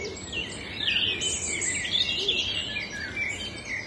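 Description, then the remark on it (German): Several birds chirp and sing at once, a steady tangle of bright, high-pitched tweets and trills running throughout, with a soft rushing background beneath and no voices. “Und nimm die Geräusche um dich herum, die Geräusche auf deinen Ohren, die Geräusche der Vögel wahr.”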